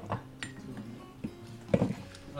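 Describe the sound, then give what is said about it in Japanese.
Several quick clinks and knocks of small plates being handled and set down on a table, with a brief cluster of clatter near the end and faint room noise between. “ちっちゃいお皿ちっちゃいお皿あねげてください”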